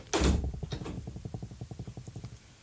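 A door shuts with a loud thud, followed by a quick run of rhythmic mechanical rattling that fades slightly over a couple of seconds. No one speaks.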